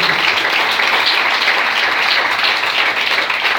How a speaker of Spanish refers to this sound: Dale la aplauso al Señor esta noche.